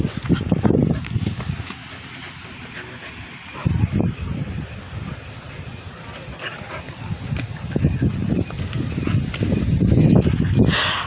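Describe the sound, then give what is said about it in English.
A puppy clinging to a person's foot scrambles and shuffles, with repeated thumps, scratchy rustling and a few soft whimpering noises, all fairly loud and continuous, with no one talking. “Okay, sorry, that was my puppy.”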